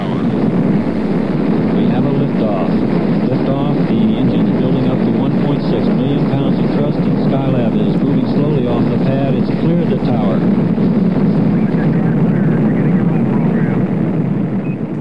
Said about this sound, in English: In November, after a six-day delay to replace cracked stabilizing fins, the third mission soared aloft with astronauts Carr, Gibson, and Pogue. Liftoff, the engines building up to 1.6.